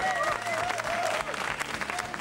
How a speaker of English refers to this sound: The people have spoken, and this year's winner is Mom's Basement Records. You can all applaud now or, or throw your hats in the air and cheer.